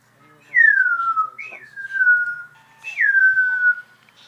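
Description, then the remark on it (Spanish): Three descending whistles, like fireworks, each a clear high tone sliding smoothly downward for about a second, one after another, with no bangs following and no talking. “Pétalos, pétalos pétalos este, fuegos artificiales.”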